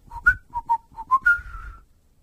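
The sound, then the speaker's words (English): A person whistles a short, slightly flat tune: six quick breathy notes followed by one longer, wavering note that trails off, with no talking. “flat, flat whistling.”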